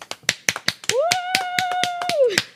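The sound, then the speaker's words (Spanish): Scattered, irregular hand claps from a small group, applauding a guest, sharp and fairly loud, with a long high-pitched vocal cheer that rises, holds steady, then drops away through the middle. “Eh, pero primero voy a, pedirles un aplauso ahí en sus casas para nuestra invitada”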